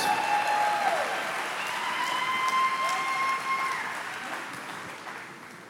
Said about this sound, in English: Let's give him a, a big hand for all that he does.